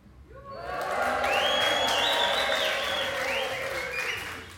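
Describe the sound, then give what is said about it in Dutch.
A live audience at the Zomerparkfeest, a hall full of people each making a noise of their choice, erupts in cheering, whooping and applause, swelling quickly and holding loud and sustained for several seconds, with high-pitched shouts and whistles rising above the crowd roar. “Maar als het publiek allemaal eventjes een, een geluid maakt naar keuze.”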